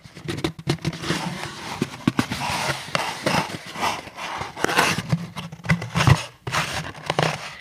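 Continuous rustling and scraping of a cardboard package box as it is shifted and turned over and over in the hands, with soft thumps and crinkly handling noises throughout.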